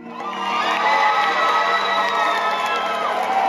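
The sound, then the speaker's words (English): Gabe Amo's supporters erupt in loud, sustained cheering and whooping on Tuesday night as he wins the Democratic primary in Rhode Island's 1st Congressional District, with high shouts and excited voices blending into a dense roar that swells quickly and holds steady throughout. “That's the sound of Gabe Amo's supporters when he won the Democratic primary in the 1st Congressional District on Tuesday night.”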